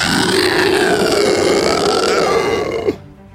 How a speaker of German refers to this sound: nachdem der Lindwurm, den ihr gerade vermeintlich erlegt habt, seinen letzten widerwärtigen Schrei ausstößt.